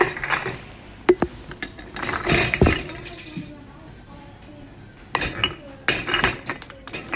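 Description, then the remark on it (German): Glass jars clink and knock together repeatedly, sharp bright taps coming in irregular bursts with softer handling noise between them, as the jars are weighed on a scale and labeled with stickers. “jetzt wiege ich diese ganzen Gläser ab, die ich mitgenommen habe.”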